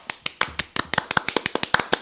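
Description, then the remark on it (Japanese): Sparse applause from just a couple of people: a steady run of about fifteen sharp, bright hand claps at a brisk, slightly uneven pace, with no voices over them. “今日は拍手2人やから寂しいね。”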